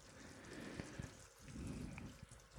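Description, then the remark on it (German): Sugar syrup bubbles away in a pot as the water boils off and the dissolved sugar begins to turn brown, a soft, steady simmer broken by small irregular pops and crackles, fairly quiet with no voices. “Ja, so langsam kocht jetzt das Wasser raus. Der Zucker hat jetzt eine, ist ja, hat sich jetzt aufgelöst.”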